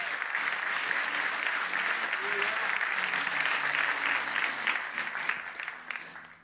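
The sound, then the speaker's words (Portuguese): An audience applauds the Lord steadily, a dense wash of clapping that holds strong for about six seconds before tapering off, ending with a brief sharp burst. “Pode aplaudir ao Senhor bem forte.”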